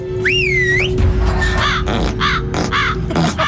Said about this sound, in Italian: Questo è uno sterco corvo! Uno sterco corvo? Esatto, uno sterco corvo! Un corvo di letame creato con un incantesimo potentissimo!